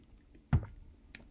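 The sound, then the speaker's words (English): A quiet sip of water: one soft wet slurp followed by a faint swallow, then a tiny click, with no talking around it. “Let me take a sip of water.”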